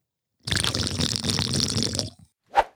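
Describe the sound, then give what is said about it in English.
Water being poured or drunk: a steady, gurgling liquid rush for about a second and a half, then a brief pause and one short sharp splash or gulp. “I have my water too.”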